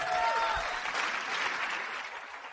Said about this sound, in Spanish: Recíbamela con un fuerte aplauso, por favor.